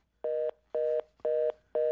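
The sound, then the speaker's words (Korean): Four even beeps of a telephone busy tone after a call hangs up, each a steady mid-pitched tone about a quarter second long, separated by equal gaps, with no voices. “전화가 끊기고 장인어른께서 제게 또 이러시더군요.”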